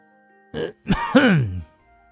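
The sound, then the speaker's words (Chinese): A voice imitates an awkward cough: a short breathy burst, a brief pause, then a longer voiced throat-clearing rasp that falls in pitch, moderately loud and otherwise alone. “见李直拒绝自己的孙子，李有胜脸上有些挂不住，咳嗽了一声。”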